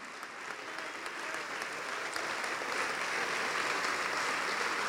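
An audience applauds the name of Jesus steadily, a dense wash of many hands clapping that swells slightly and holds at an even, lively level throughout, with no speech over it.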